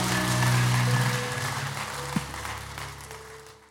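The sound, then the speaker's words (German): A burst of applause from a crowd for people who raised their hands, dense and steady at first, then gradually thinning and fading over a few seconds, with a low musical drone underneath. “Hey, wie wäre es mal, wenn wir den Leuten einfach mal einen Applaus geben, einfach als Zeichen der Freude.”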